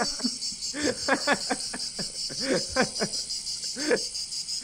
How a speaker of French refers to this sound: moi j'en pouvais plus des cigales à force